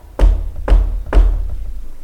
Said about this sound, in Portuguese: A discussão foi interrompida com batidas na porta.